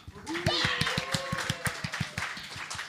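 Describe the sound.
Audience applause at a festival as the evening's band members are introduced: a steady run of quick, even claps that carries on for the whole stretch, with a brief high cheer or voice rising over it near the start.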